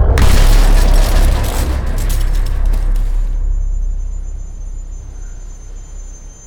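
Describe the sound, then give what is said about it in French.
A Rover car tumbles down a steep slope and crashes 40 metres below with a loud, heavy impact and metal smashing, followed by a few seconds of clattering debris, then a deep rumble that slowly fades. No voices. “Elle finit par s'écraser 40 mètres plus bas dans un énorme fracas de métal et de fumée.”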